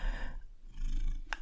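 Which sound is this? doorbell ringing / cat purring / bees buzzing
cat purring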